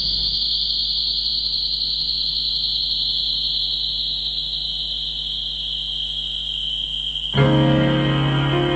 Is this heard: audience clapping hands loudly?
no